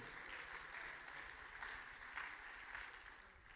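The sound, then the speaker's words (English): A crowd claps their hands in sustained, dense applause, a steady wash of overlapping claps at an even loudness for several seconds with no voices over it. “Clap your hands if you believe that today.”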